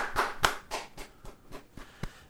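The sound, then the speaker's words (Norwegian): Brief applause of about eight or nine sharp, crisp claps in a steady, fairly quick rhythm, fading slightly toward the end, with no voices over it. “kort applaus.”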